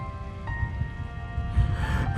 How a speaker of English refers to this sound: It's raining, just like that day.